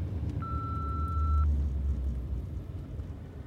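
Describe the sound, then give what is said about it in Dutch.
A single steady electronic beep, about one second long and mid-high in pitch, from an answering machine signalling the caller to leave a message after the beep, over a low rumbling background hum. “Spreek in na de piep.”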